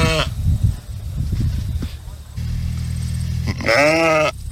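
A sheep bleats loudly: a brief cry at the very start, then a longer, wavering bleat near the end, with low rumbling background noise in between.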